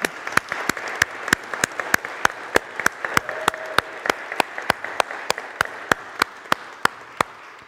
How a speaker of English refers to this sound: And uh, to go beyond the applause. The applause is wonderful.